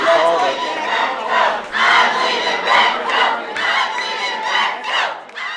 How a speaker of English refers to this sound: Just listen to this woman as she completely loses it over a Beto O'Rourke sighting.